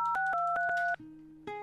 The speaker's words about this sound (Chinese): 电话正在拨通当中，我们来看一下拨通电话电话那头的她在怎样的一个生日现场呢？